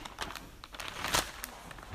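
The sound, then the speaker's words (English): Thin pages of a small-print book being turned by hand while looking for Psalm 139, with a run of soft papery rustles and crinkles and one louder sweeping flip near the middle. No one speaks. “Them, my fingers aren't turning the pages too well.”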